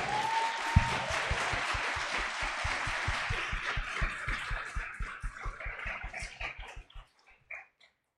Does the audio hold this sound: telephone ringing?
no